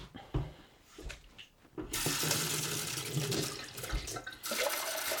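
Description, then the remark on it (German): After a couple of seconds of quiet clinking, cold water begins pouring in a loud, steady rush that continues to the end, like filling from a tap or jug, as it is added to millet to make millet milk. “Das also hier steht nichts, deswegen gebe ich kaltes Wasser dazu.”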